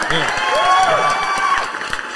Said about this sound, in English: dropping a round of applause on Yo